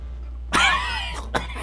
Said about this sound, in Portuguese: se fosse, o senhor não tossia tanto